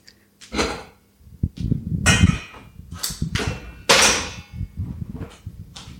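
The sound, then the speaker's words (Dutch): Eggs and sugar being whisked in a bowl set in a saucepan of water on the stove (au bain-marie), with a thermometer in it, while being heated to 60 degrees: irregular bursts of metallic clattering and scraping with brief pauses between strokes, no voices. “En dan klop ik hem op tot 60 graden.”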